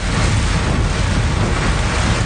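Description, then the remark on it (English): A vehicle pushes through floodwater on an outback road in Western Queensland, Australia, heard from the driver's seat, with a steady, loud rush of churning water over a deep low rumble, continuous for the whole stretch and with no voices. “This is what it looked like from the driver's seat as Outback Roads went under.”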